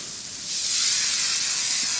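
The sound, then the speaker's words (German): A steady, loud hiss of a foam lance spraying car wash foam, air being mixed in as the lance is pushed forward to form the foam, starts half a second in and continues evenly, a bright, airy rush with no voices. “Durch das, durch das, Vorschieben der Lanze wird Luft dazu gemischt. Dadurch bildet sich der Schaum.”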